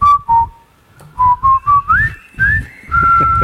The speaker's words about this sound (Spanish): El gran silbador.